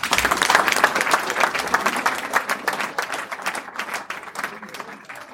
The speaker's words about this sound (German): Einen kleinen Punkt habe ich noch, wobei erstmal möchte ich mich ganz herzlich bei euch bedanken, dass ihr die WKS-Farben so wunderbar nach außen hin vertreten habt. Vielen Dank, nochmal einen Applaus für euch.